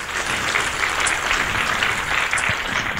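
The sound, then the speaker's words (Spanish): A church audience applauds steadily, a dense crackle of many hands clapping at once with sharp individual claps popping out, loud and continuous without letting up. “Dese un aplauso, iglesia.”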